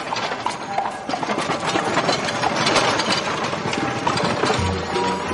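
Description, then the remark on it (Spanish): Hooves of a horse-drawn carriage clip-clop steadily as it passes along a sloping street amid a dense, continuous wash of street noise, the clattering rhythm fairly loud throughout, with a faint low engine-like hum underneath. “Caminan por una calle en cuesta y se cruzan con un coche de caballos.”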